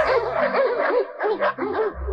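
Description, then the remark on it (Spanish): Several dogs inside a house bark and yip in a busy, overlapping chorus, the sharp calls tumbling over one another for a couple of seconds, loud. “¿Tienes perro? Eh, sí, maestro, varios. Entonces mete a todos en la casa.”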